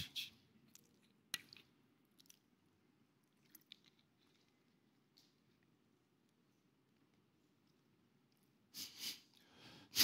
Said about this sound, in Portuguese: Vou precisar tomar uma água.